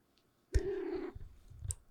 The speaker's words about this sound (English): Uh, my cat.